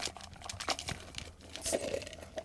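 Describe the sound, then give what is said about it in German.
Paper slips are shaken and rustled, then the first slip is drawn out, giving a run of dense crinkling and crumpling bursts with sharp papery crackles, moderately loud and continuous, with no talking. “Okay, dann werde ich jetzt mal den ersten ja, Zettel zieh ziehen”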